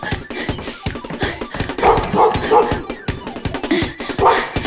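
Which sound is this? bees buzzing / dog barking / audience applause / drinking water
dog barking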